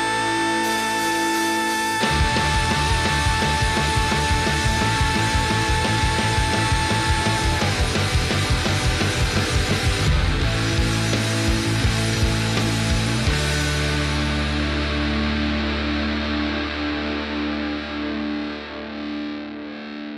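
A loud rock song by a local band, dedicated to Diego Maradona, with heavily distorted, effects-laden guitars and a driving, chugging rhythm that hammers steadily before easing into a sustained, ringing wash of sound near the end.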